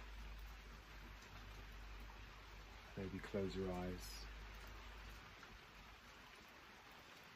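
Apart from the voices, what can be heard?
rain falling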